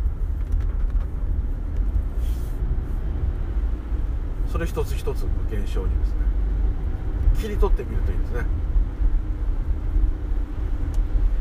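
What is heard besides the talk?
car driving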